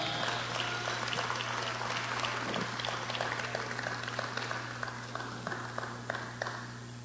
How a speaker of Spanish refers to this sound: Y tenemos dos voluntarios fuertes, guapos y poderosos que van a pasar aquí enfrente. Así que denle un aplauso, por favor